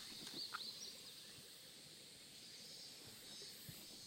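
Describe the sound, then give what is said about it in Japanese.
A few faint, brief bird chirps near the start, set against a steady outdoor hiss of insects and running water in a mountain forest on Sado Island, Japan. No one speaks. “えー佐渡のね山の中からお送りしておりますので、えー、鳥の声虫の声も一緒にお楽しみください水が流れる音なんかもね聞こえるかなと思います”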